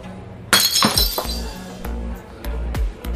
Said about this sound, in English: In case you couldn't decipher those noises, I just dropped a coffee mug on the floor and nobody noticed.